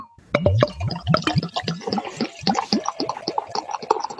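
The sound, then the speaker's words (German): Beer, a Helles lager, glugs and splashes steadily into a glass, a bubbly pour with rapid gurgling pulses that rise slightly in pitch as it fills, with no talking. “Ein schönes Geräusch und jetzt kommt es ins Glas.”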